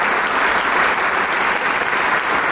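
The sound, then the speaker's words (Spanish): Sustained applause from the audience and the musicians after a performance of Robert Schumann's Symphony No. 4, Op. 120, conducted by Ramón Chade, a dense, steady wash of clapping at moderate loudness with no pauses. “Los músicos empiezan a aplaudir también y a saludarse entre ellos.”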